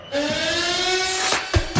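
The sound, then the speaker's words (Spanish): A loud, steady basketball arena siren blares for over a second at a game at the Palau, holding one even pitch, then cuts off into a few sharp, heavy thuds near the end. No one speaks. “Que suene la sirena, que estamos ya en la recta final, últimos minutos antes de que empiece a las 9.”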